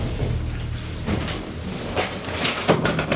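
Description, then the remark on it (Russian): A folding prison bunk in a Russian prison swings shut with a low metallic rumble, then several sharp clanks and a final thud, fairly loud, with no one talking. “Закрывается.”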